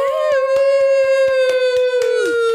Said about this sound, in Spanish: Todos mis aplausos aquí de mis becarios, así de fondo. Gracias a los becarios.